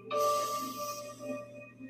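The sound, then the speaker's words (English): A slow, airy breath drawn in through the nose during a guided breathing exercise, soft, rising quickly then fading over about a second, with a steady low hum and faint tones held underneath. “Breathing in through the nose”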